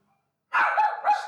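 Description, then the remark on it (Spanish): A dog named Phoebe barks loudly, two quick harsh barks in a row after a brief moment of silence, with no voices present. “Ok, vamos a un corte en lo que Phoebe termina de ladrar y ahorita regresamos.”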